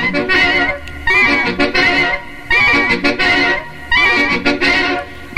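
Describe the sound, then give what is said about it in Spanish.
Loud, upbeat classic cumbia plays throughout, with bright melodic lines over a steady, bouncing beat that repeats in short rhythmic phrases, full with no one talking. “escuchas el ritmo de la cumbia.”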